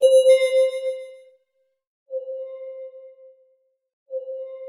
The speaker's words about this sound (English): She grabbed an extra blanket from beside the bed and used it to muffle the source of the beeping sound as much as possible.